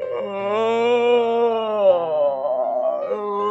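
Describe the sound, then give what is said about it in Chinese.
A voice imitates a long, drawn-out yawn, a sustained vocal moan that wavers slightly in pitch and dips toward the end before trailing off. It acts out the story character Bengbeng yawning. “这蹦蹦却瞌睡起来了，一连打了十个哈欠。”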